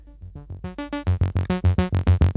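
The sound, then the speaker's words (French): A synthesizer built from a DIY kit plays a quick, steady run of bright, buzzy notes through a high-pass filter, the tone shifting and growing louder and fuller as the sequence goes on, with no talking. “Ça, c'est le son du du high pass.”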